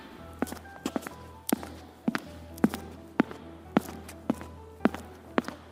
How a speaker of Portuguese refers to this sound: Ouvi passos subindo as escadas e atravessando o corredor.